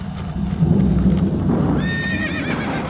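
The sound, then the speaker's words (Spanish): Hunters approach on horseback with steady clip-clopping hooves, heard from afar, and partway through a horse lets out a loud, wavering whinny. No one speaks. “Cuando se acercan los cazadores, el coquena escucha desde lejos el ruido de los guardamontes y entonces comienza a reunir los animales.”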